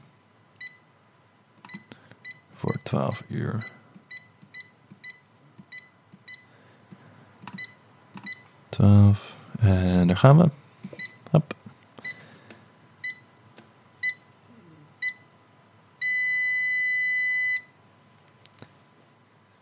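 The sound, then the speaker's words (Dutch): A phone lock box timer being set at 8 p.m. to lock a phone inside for 12 hours: a series of short electronic beeps at a steady pace, a person speaking briefly in between, then a longer sustained confirmation tone near the end. “Ik heb mijn telefoon in de box gedaan en ik ga nu de timer instellen.”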